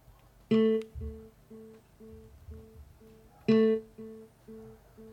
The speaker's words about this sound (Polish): Ten sygnał oznajmia, że Bluetooth jest y, gotowy do parowania, parowania tak, i mogę sobie teraz w działać. urządzeniu bezprzewodowym, gdzieś tam w telefonie, czy, czy komputerze, czy gdziekolwiek, poszukać jakiegoś yy, tego właśnie y, JBL Flip 4.